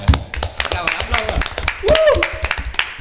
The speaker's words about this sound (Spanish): Un aplauso, muchas gracias. ¿Cómo Un Un aplauso, chicos.